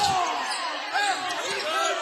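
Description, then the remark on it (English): A basketball being dribbled by Lehman on a gym floor during a Bellmont versus South Adams game, bouncing steadily amid loud, echoing crowd noise and a murmur of voices throughout. “Lehman now on the bounce.”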